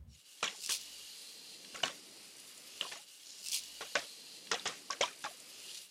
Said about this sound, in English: Just so things don't sound too busy, I've then chopped out the best sections of this stream, and then I've layered this with the brush foley and an extra shaker sound.